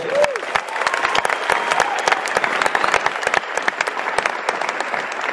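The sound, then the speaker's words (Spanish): An audience claps for themselves steadily for several seconds, a dense, even patter of many hands with sharp crisp peaks throughout and no one speaking over it. “regálese un aplauso para ustedes.”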